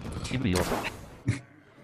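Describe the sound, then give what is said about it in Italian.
Video game fireworks effect played after winning a match: a cluster of sharp popping bursts followed by one louder bang near the end, heard over a speaking voice, moderately loud. “questi sono i fuochi d'artificio che eh, vi fanno capire quanto siamo stati bravi.”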